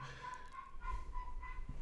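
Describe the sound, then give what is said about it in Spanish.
A neighbor's dog whines in thin, high-pitched whimpers that rise and fall several times in a row, faint over a low background hum. “Sí, van a escuchar un perro llorando. Es un perro de un vecino, no sabemos cuál.”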